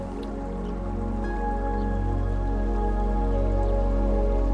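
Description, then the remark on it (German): Water of a shallow, clear river only a few centimetres deep burbles and gurgles steadily over small stones in soft sunlight, a continuous babble with little droplet-like splashes and no voices, holding an even loudness throughout. “Das Wasser sprudelt und gluckert über kleine Steine dahin.”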